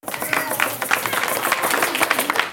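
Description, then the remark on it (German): Parents applaud together at the end of a 30-minute theatre performance for babies, a steady, dense patter of clapping at moderate volume from a small audience, with faint voices mixed in underneath. “Am Ende der 30-minütigen Vorstellung klatschen nur die Eltern.”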